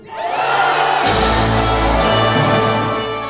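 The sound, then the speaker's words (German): The Chinese delegation erupts into cheering and shouting as Beijing is announced as host of the Olympic Winter Games, swelling suddenly about a second in and staying at full intensity, with a dense roar of many voices. “Die Delegation aus China bricht in Jubel aus.”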